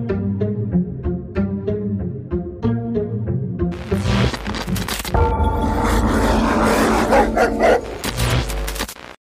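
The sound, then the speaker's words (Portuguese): A dog barks in a rapid, steady series of sharp woofs, then the sound swells into a louder, dense and chaotic roar of barking and noise that continues to the end, with no talking. “Vamos falar dos cachorros do inferno.”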